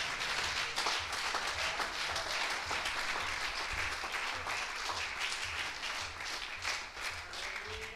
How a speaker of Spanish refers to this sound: Ese aplauso para Dios en esta mañana.